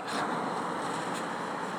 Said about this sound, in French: Comme là, j'enregistre et il y a des voitures qui passent. Je pourrais dire, ce n'est pas tranquille, ce n'est pas silencieux. Mais je pourrais aussi utiliser le vrai mot et dire, c'est bruyant, c'est désagréable, c'est cacophonique.